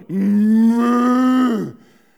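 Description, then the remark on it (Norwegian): A single long, drawn-out moo imitated by a human voice, loud, holding a steady low pitch for about a second and a half before trailing off. “Da hører jeg langt oppe i fjellskråninga et himlende sånn”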